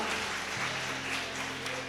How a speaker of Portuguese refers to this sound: Vamos aplaudir o Senhor porque Ele é bom. Glória a Deus. Aleluia.